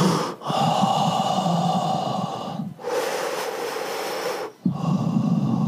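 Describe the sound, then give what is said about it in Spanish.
A person imitates a dog panting with loud, breathy huffs, three long noisy breaths in and out separated by brief pauses, with no talking. “No respirando como si fuera un pejo jadeando.”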